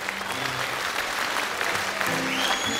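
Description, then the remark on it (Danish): Dense, steady applause from a large live audience at a singer's concert in Horsens in 2000, a continuous wash of clapping with a few faint tonal whistles or cheers rising through it. “Men lad os lige, lad os lige prøve at høre her, Horsens øh, 2000, hvordan det lød.”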